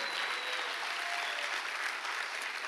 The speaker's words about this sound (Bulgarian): Благодаря на пете човека, които ръкопляскат там отзад.